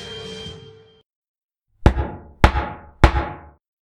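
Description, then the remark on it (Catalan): Three firm knuckle knocks on the wooden door of a small house at night, evenly spaced, each with a short hollow ring, following a brief fading background sound and a moment of silence. “No veu cap timbre, de manera que decideix picar la porta amb els artells.”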